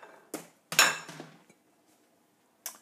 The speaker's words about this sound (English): pour some noodles into this bowl.